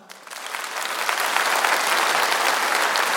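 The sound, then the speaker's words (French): A festival audience breaks into applause for those who keep their alarm clock on their mobile phone, the clapping swelling quickly from a scattered start into a steady, dense roar of many hands that stays loud throughout. “Par, par applaudissement, ceux qui ont leur réveil matin sur leur portable.”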